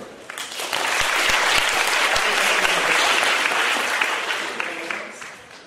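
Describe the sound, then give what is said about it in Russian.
An audience breaks into sustained applause to welcome a lecturer before a talk on embryology at a medical faculty, dense clapping that swells quickly, holds steady for several seconds, then gradually tapers off. “Не буду отнимать времени, поприветствуем”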